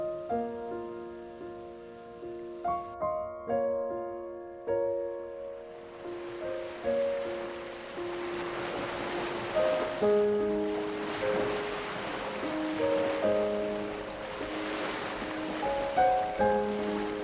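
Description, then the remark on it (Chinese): A steady wash of ocean surf rises after a few seconds and rolls on continuously beneath soft, slow melodic piano-like notes; no one speaks. “静静的聆听大海的潮来潮往，请你慢慢的深呼吸，想象自己与他们融为一体。”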